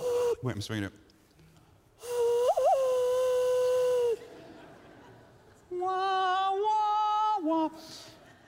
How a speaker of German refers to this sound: Also habe ich gelernt, mit meinen Händen Musik zu machen, wie